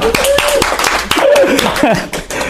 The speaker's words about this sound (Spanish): Este aplauso, por favor.